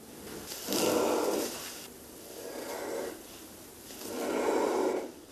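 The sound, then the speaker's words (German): An Angolan giraffe makes three low, breathy snorting huffs in a slow, steady rhythm, each lasting about a second, with no other sounds around them. “Angolanische Giraffe, so ja. klingen sie.”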